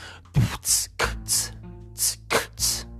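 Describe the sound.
A basic beatbox pattern, alternating deep kick-drum thumps with sharp, hissy snare-like bursts in a steady rhythm, about seven hits over three seconds, with no talking.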